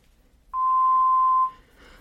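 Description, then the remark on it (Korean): A single steady electronic voicemail tone beep at one clear pitch, lasting about a second, loud against near silence, then fading out with faint noise afterward. No one speaks. “소리 이후 음성 사상으로 연결됩니다.”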